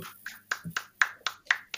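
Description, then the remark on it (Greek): A single person claps hands in a quick, steady rhythm, about eight sharp claps in under two seconds, with nothing else audible. “Χειροκροτά, ε. Ξεκάθαρα.”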